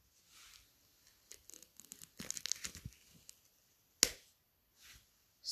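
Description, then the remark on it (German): Protective plastic film is peeled off a headband: soft swishes, then a burst of crackly, crinkling rips, and a single sharp snap as it comes free. No one speaks. “Nochmal die Folie abziehen. Vielleicht hört ihr es jetzt auch.”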